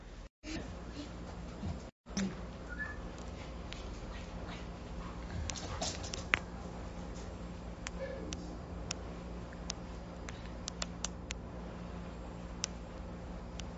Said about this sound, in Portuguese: Família inteira aqui, tá até cachorro aqui, tá?